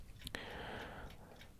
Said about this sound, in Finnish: näihin kellon tikitysääniin onkin hyvä lopettaa tämä jargonia.